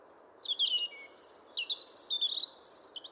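A European robin, or robin redbreast, sings a continuous stream of high, thin warbling phrases that rise and fall, clear, over a faint low background hiss.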